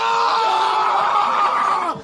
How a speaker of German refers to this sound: Mein Tipp für solche Situationen? Einfach ins Computermikro schreien.